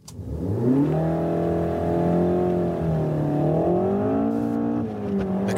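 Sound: sports car engine revving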